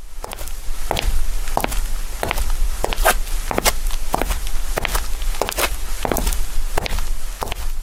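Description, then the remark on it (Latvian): Steady human footsteps walking at an even pace, about a dozen distinct treads, with no talking and a soft background hum. “Tā skan cilvēka soļi, kurš kaut kur dodas.”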